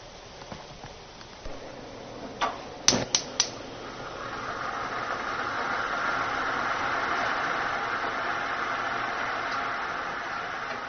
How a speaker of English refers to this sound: As in all good cooking shows, we preheated this water so that it would boil